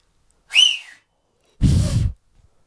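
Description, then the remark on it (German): A person whistles a brief sliding note lasting about half a second, then after a pause a 45-year-old who cannot whistle tries, producing only a louder breathy, rushing blow of air with no clear tone. “Ey, warum kannst du nicht pfeifen?”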